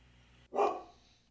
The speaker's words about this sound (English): It's so frustrating that dogs outside are barking.